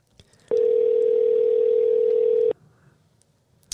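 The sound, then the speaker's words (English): A single ring on the telephone line while calling someone back after a dropped call: one steady, loud electronic tone lasting about two seconds, then quiet with faint background noise and no talking. “As they used to say, one ringy dingy.”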